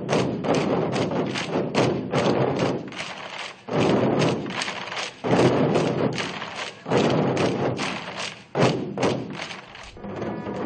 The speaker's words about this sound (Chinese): 由于久旱无雨，诸葛村的村民们敲着锣鼓，又来到村口这个有着两千多年历史的古庙前。求雨是他们农耕生活重要的一个组成部分。如今谁都知道这种方法不会灵验，但谁都愿意用锣鼓的方式让沉寂的山村热闹一番。